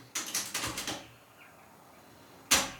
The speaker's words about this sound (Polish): Włączę magnetofon kasetę na początek. Przy okazji Państwo mogą zwrócić uwagę, że inne dźwięki wydaje niż poprzednie techniksy.